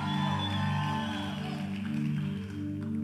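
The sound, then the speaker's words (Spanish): A church audience shouts and cheers together in answer to the preacher's call to shout, a loud, sustained roar of many voices, with a steady hum underneath, lasting about three seconds without easing off. “Si alguien es parte de esa iglesia, de un grito ahora.”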